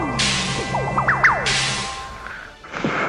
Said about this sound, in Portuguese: E com isto, todos que estão fora da casa começam a escutar estalos de chicote vindo do segundo andar.